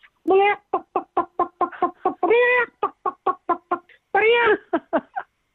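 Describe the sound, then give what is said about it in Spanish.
A person in an office, standing up among seated colleagues, imitates a clucking hen: a brisk, steady run of short clucks broken by three longer, drawn-out squawks, fairly loud, with no other sounds around it. “Bueno, oye, salió el director comercial, director ejecutivo comercial del despacho, mirando a los lados, pero ¿quién ha traído una gallina?”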